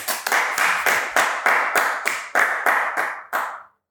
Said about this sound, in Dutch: Bedankt. Applaus.